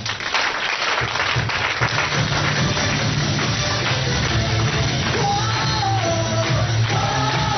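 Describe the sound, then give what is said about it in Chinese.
An audience breaks into steady applause at the speaker's request, many hands clapping at once in a dense, even wash of sound that holds loud and constant for several seconds without any talking. “只要一做消费卡，净挣百分之三十，来，你的掌声鼓励一下。”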